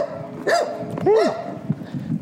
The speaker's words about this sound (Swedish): Men oj, oh, nu kommer en annan hund och skäller på hunden jag går ut med.